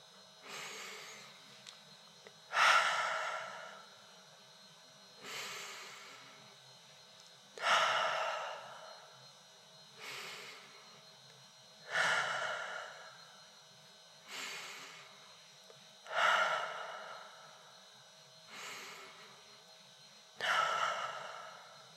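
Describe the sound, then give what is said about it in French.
Slow, deep breaths drawn in and pushed out through the nose in a breathing exercise, airy, repeating in a steady rhythm about every two and a half seconds with no talking. “3 secondes et soufflez par le nez en laissant redescendre votre cage thoracique.”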